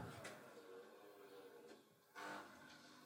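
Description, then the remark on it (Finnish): A coffee machine runs its self-cleaning cycle with a steady mechanical whir and hiss, broken by a couple of short, louder bursts of steam or spraying water. “Mun kahvikone puhdistaa itseään.”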